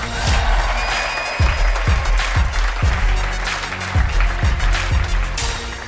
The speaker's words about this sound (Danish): Lad os give vinderholdet en kæmpe stor hånd.